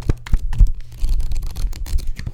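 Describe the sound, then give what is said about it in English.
Pages of a book riffle quickly, a dense run of papery flicks and rustles lasting a couple of seconds, with no voices over it. “Did you hear that? That's amazing. I know. It's a book.”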